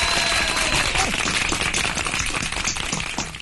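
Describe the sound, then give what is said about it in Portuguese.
A burst of applause: many hands clapping in a dense, steady patter that stays loud for a few seconds, then gradually thins out and softens toward the end. “Palmas!”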